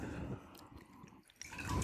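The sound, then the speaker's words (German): Water sloshes and swirls around inside a glass as it is rinsed out, fairly quiet, with a brief pause before a louder wet swish at the end. “Dann muss ich das mal ausspülen hier. Und dafür haben wir ja Glas da und Wasser ist ja kein Problem.”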